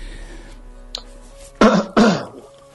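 Two loud, harsh coughs in quick succession, close to the microphone, after a quiet stretch with a faint click; no talking.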